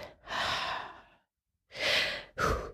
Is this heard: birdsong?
no